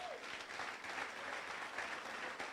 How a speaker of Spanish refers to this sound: ¿Cuántos le dan gracias al Señor con un aplauso? Dele gracias.